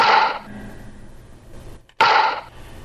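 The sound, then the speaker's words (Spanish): A baseball bat cracks hard against a ball pitched at 100 per hour twice, about two seconds apart, each a loud, sharp impact with a brief ringing tail, a low steady hum filling the gap between hits. “Le pega muy fuerte.”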